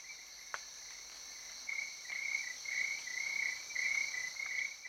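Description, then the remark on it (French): Forest ambience on the lower slopes of a volcano in equatorial Africa, filled with chirping crickets, a steady high-pitched trilling that pulses in repeated bursts over a constant insect hum, with a brief click early on and no talking. “Quand tu parles de la forêt, il y a d'abord les bruits euh, normaux dans, la forêt.”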